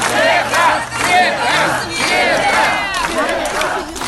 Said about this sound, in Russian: Около участка ее встречали несколько сотен сторонников, которые устроили ей овацию.